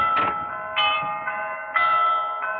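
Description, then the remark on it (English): Tower bells ring in a steady sequence of five strikes about half a second apart, each tone bright and sustained, overlapping into a resonant, ringing wash with no voices. “Who could be ringing those bells?”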